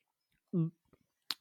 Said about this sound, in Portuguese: Oi, só que dar um golinho de café.